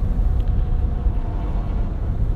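A truck rumbles past on a road, a steady, heavy low-frequency engine drone that holds at an even level throughout, with no voices.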